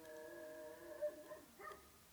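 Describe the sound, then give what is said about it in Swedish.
A wolf at Kolmården howls in a long, steady drawn-out note that wavers and rises briefly near the end, sounding faint, with no one talking. “ja, det var en varg.”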